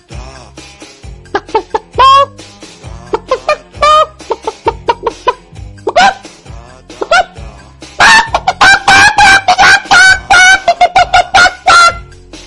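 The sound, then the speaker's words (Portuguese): Someone vocally imitates a hen walking in a backyard with short, irregular clucks, then, as the hen spots a hawk landing and trying to take her, breaks into louder, rapid, strained cries meant as the hawk, with no other talk. “Vamos lá, galinha andando no quintal. E aí a galinha avista alguma coisa e aí ela percebe que é um gavião pousando e tentando levá-lo-a.”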